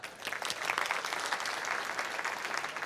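audience applause

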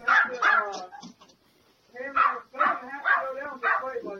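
dog barking

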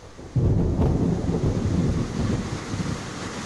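rainstorm with thunder

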